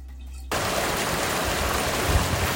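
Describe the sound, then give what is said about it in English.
Running shower water bursts on abruptly after a brief quiet moment, then continues as a steady, loud hiss and patter of spray with no talking. “This is a shower.”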